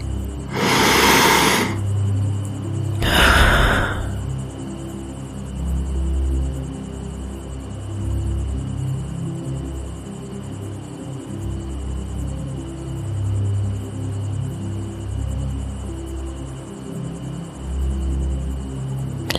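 Crickets chirp steadily in a thin, high-pitched drone throughout, over a low background hum, with two brief breathy whooshes near the start.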